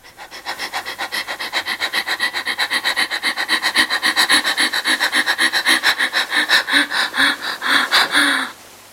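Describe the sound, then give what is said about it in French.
Rapid, heavy panting breaths from a woman in labor just before giving birth, a steady quick rhythm of loud rasping inhales and exhales, continuing without pause for several seconds before stopping abruptly. “Dernière respiration, juste avant la naissance.”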